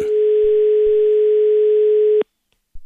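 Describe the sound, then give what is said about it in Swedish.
A single long, steady telephone ringing tone holds at constant pitch for about two seconds, loud, then cuts off abruptly into silence. “Det var en lång signal.”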